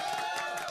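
A brief applause sound effect used as a jingle: a burst of crowd applause, dense and steady with some cheering mixed in, lasting under a second at an even, moderate loudness.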